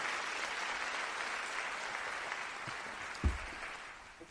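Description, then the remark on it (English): A large audience at a worship service claps together as an offering to the Lord, in a steady, dense wash of applause that holds evenly for several seconds, with a single louder thump near the end as it begins to fade. “I want you to give the Lord a clap offering.”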